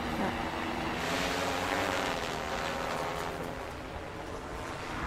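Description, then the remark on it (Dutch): A camera drone's motors whir in a steady, loud buzzing drone as it is landed manually, constant throughout, with a broad rushing hiss over a low mechanical hum and no voices. “Nu gaat hij hem zelf landen, toch? nu ga ik hem manueel eh, laten landen.”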